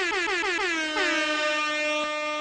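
A loud, harmonically rich siren effect wails on its own, warbling rapidly at first before settling into a steady, sustained blaring tone.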